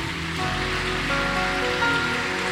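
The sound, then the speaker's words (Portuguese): An audience applauding the Lord: dense, continuous clapping held at a steady level for a few seconds, with sustained musical tones underneath and no one speaking. “Pode aplaudir o Senhor.”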